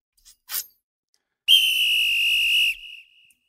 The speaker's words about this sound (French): Le retour de mon sifflette.